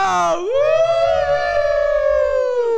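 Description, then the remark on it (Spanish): A sustained, wavering howl from human voices imitating ambulance sirens, rising and holding for nearly three seconds, loud, with a low rumble underneath. “Parecemos ambulancias.”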